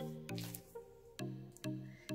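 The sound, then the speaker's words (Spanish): Water splashed onto the face to wet the skin before cleansing, as the first step of a skincare routine, in three wet bursts spaced about half a second apart, with a steady low tone running underneath. “Humedecer bastante el área.”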